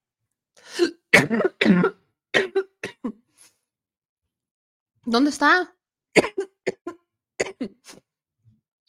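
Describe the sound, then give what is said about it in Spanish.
A coughing fit: a run of harsh, rapid coughs, a short pause and a brief spoken phrase, then another burst of several sharp coughs trailing off. “Ya me dio un ataque de tos otra vez.”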